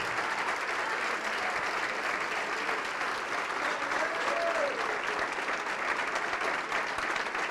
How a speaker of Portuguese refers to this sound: Então vem aqui para frente que nós vamos orar e vamos aplaudir muito, igreja. Vamos aplaudir bastante ao nome de Jesus. Vamos aplaudir muito ao nome de Jesus.